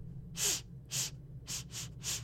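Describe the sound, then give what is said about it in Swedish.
A person imitates a woman leaning forward and sniffing at someone, with five quick, breathy inhales through the nose in an uneven rhythm, with no talking. “Hur tar Dahlia det att hon börjar sniffa på dig?”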